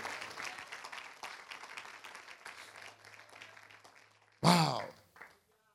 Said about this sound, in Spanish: Dele un aplauso de alabanza al Señor.